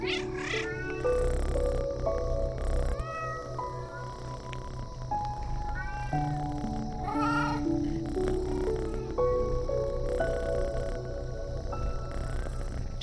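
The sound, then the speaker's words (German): Several cats meow repeatedly while playing wildly, running about and rolling on catnip, in overlapping, rising and falling cries, some drawn-out and yowling, over a steady tonal background; the calls are clear, with no talking. “Die Katzen spielen völlig verrückt.”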